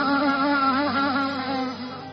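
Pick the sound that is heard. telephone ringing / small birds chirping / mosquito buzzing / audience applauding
mosquito buzzing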